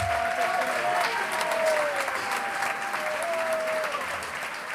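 Steady audience applause fills the whole stretch, a dense patter of many hands clapping at moderate loudness, with a thin whistling tone drifting in and out over it.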